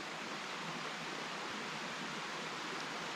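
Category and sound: nature, flowing water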